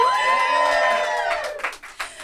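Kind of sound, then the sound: crowd, crowd cheering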